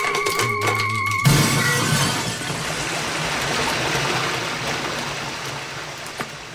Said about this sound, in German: das Aquarium, es hat ein Riss!